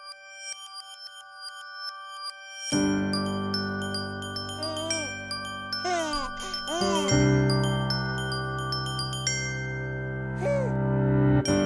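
A song intro opens with bright, tinkling chime-like tones alone, then fuller music enters with a sustained low bass and warm chords, while high sliding, swooping tones weave over the top.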